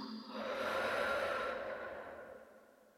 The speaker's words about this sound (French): Allez avec moi et puis c'est la minute sérénité. Inspire à plein poumon. Et expire tout doucement.